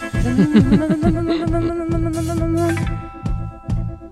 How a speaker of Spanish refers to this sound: ¿Esto es …? Métele rock. Ahora sí. El trémolo, mamita. No escatimaron el trémolo.